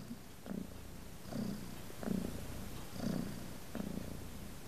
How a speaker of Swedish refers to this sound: hon som nu då ligger här med, jag har tre kattungar som, som tuttar och tuttar och tuttar.